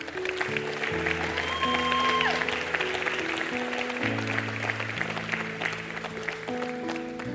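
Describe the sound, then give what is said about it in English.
A church audience applauds its youth pastor steadily for several seconds in the morning, the clapping spread wide and moderately loud, while sustained keyboard or organ chords play underneath. “Y'all give our youth pastor a hand this morning.”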